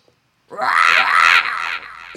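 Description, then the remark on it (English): A person, asked for a "heat seeking panther roar", imitates a panther roar with a strained, raspy vocal growl lasting about a second and a half, rising then fading, strong and somewhat high-pitched, with no other talking. “Um, can you give us a panther roar?”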